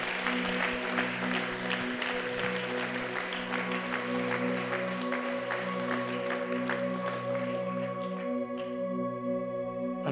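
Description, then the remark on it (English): An audience claps steadily and loudly for about eight seconds for people who raised their hands during a service, over sustained organ-like chords; then the applause thins out while the held musical tones continue. “Can we clap for these people?”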